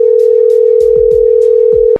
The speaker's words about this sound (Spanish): Oye, le estamos marcando a la de Michoacán, pero no contestan.